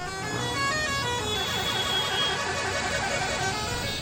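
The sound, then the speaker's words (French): A dense chorus of vehicle horns blaring together continuously, overlapping tones forming a steady loud din amid street traffic noise, with no pauses, as crowds of supporters and a parade of hundreds of motorcycle taxis celebrate the Lions de la Teranga, African champions, in the streets. “Concert de klaxons.”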